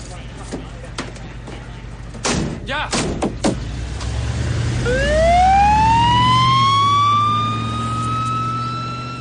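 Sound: ambulance siren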